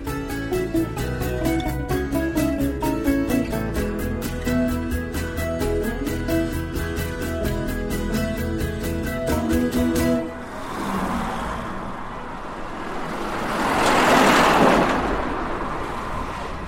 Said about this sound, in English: What a lot of noise! It's a busy day outside my window. Lots of deliveries and people driving their cars.